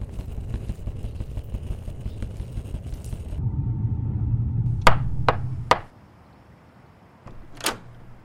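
Knocking at a door: three sharp, evenly spaced raps over a low rumble, then quiet and a single softer knock a moment later.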